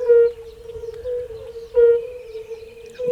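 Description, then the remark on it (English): An eerie, strange frog call: a steady, mid-pitched droning tone that holds for about three seconds, swelling louder twice, with faint reedy overtones and no voices. “Is this a live frog or the, the ghost of some deceased frog?”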